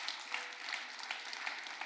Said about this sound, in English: Would you give God a hand clap of praise right where you're at?